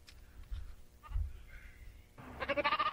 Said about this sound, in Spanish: Ahí pon, la, ahí pon el sonido de la cabra. Ahí pon el sonido de la cabra.